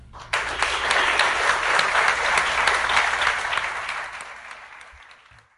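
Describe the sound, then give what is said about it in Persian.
An audience bursts into applause for the Tirgan organizers, the volunteers and the event's sound manager, a dense wash of many hands clapping that holds steady for several seconds, then thins and fades out at the end. “مدیران تیرگان که به ما این اجازه و فرصت رو دادن و گروه عظیم داوطلب ها والنتیر ها و دوستمون که ساند منجر این برنامه هستن همه رو با دستای گرمتون تشویق کنین”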